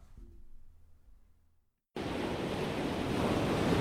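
Pacific Ocean waves crashing on the shore at UC Santa Barbara: after a quiet low rumble, a loud wash of surf bursts in and roars steadily, swelling slightly toward the end. No one speaks.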